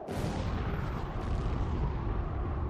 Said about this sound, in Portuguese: As bombas estão abrindo o caminho para que o navio possa atravessar.